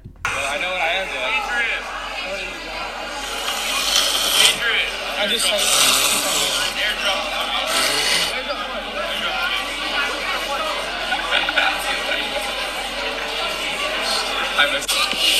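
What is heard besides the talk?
man blowing his nose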